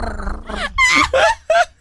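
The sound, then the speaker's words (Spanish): A person imitates a cat purring: a low, rough rumbling growl, then three loud, strained voiced bursts in quick succession. “Hágale, ¿puede ronronear usted? ¿Cómo le hacen los gatos? Ay, igualito.”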